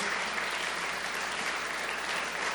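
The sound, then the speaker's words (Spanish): Steady applause from a church audience applauding the Lord in worship, a dense wash of many hands clapping at an even, sustained level for the whole stretch with no voices standing out. “Decimos amén, denle un gran, gran aplauso al Señor, hermanos, gloria a Dios.”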